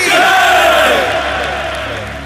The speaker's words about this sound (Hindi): सुन रहे हो मांझे ये जय घोष तुम्हें खुट खुट कर मरने के लिए विवृक्ष कर देगा एक दिन तुम्हारा अस्तित्व भी मिटा देगा ये जय घोष